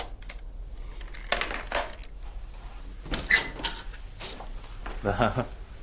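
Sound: door being opened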